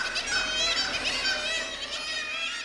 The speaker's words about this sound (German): Die Möwen nisten da auf einem Dach der Werft und streiten sich ständig um die besten Plätze